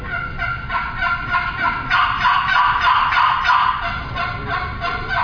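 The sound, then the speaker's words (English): A turkey box call, muffled by pressing a finger on its soundboard, makes a raspy turkey yelping sequence of rapid repeated notes. It swells louder through the middle and eases off toward the end, with no voices. “But one thing you can do is just take your finger on that sound, that soundboard right there, and you muffle it down just by pushing on it”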